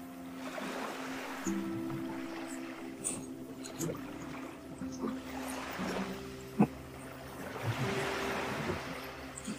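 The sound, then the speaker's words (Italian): Sea waves wash onto the shore in slow, repeated swells of hissing surf, rising and fading every few seconds over a steady low mechanical hum, with no voices. “Teo e le onde del mare”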